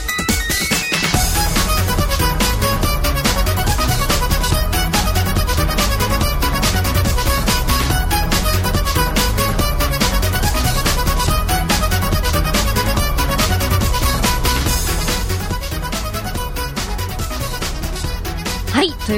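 A dense, loud Vocaloid pop song plays continuously, full-band instrumentation with a steady beat and a high, synthesized vocal line running through it, holding steady volume to the end.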